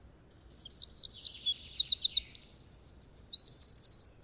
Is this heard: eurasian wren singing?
yes